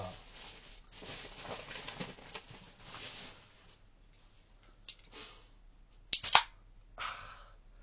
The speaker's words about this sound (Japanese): いい波形が出たね、今ね。毎度この波の話をしてるけど。ビールがクシュって開く音、いい波形でしたよ。確かに。特徴的だな、結構。うん、人間の声では出ない波だったな。